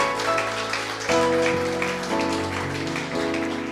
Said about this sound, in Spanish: Dele fuerte ese aplauso al que vive para siempre, hermano.